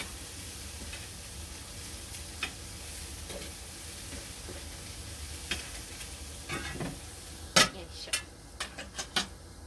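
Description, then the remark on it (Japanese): Meat sizzles steadily in a pan, a constant hissing crackle, with a few sharp clicks and scrapes of a utensil stirring toward the end. No one speaks. “お肉はいい感じに焼けてきております”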